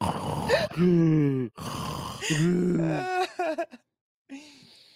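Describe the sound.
Someone imitates with their voice the heavy snoring of a knocked-out fighter lying with a stiff arm sticking out: a few loud, rasping, drawn-out snorts and groaning breaths in an uneven rhythm, with a short pause before one final snore.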